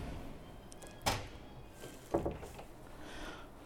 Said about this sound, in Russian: Хорошо, Закроем эту дверь. О!